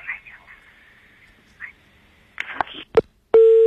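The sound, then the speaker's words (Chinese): A telephone busy tone after a caller's call to a radio programme cuts off: a thin, muffled phone-line voice, then clicks and crackles, and finally a loud, steady, low-pitched beep begins at the very end. “这个电话还断掉了”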